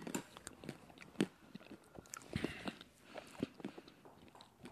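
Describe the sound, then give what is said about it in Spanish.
Chewing of a crunch ice cream bar studded with crunchy chocolate bits, a steady run of small sharp crunches and wet mouth sounds, with no talking. “escuchan que traen algo, es como que trae pedacitos de chocolate.”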